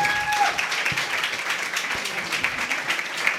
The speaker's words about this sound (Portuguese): Pessoal, vamos fechar isto. O vosso aplauso para o Nuno Curva, por favor.